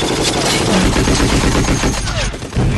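Loud gunfire crackles through a dense, chaotic movie action soundtrack, with sharp shots and rapid bursts layered over continuous roaring noise for the whole stretch.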